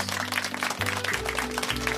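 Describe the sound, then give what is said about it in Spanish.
A burst of dense, steady applause, many hands clapping in a continuous crackling wash, with a low humming tone sustained underneath throughout. “Aplauso para los gays.”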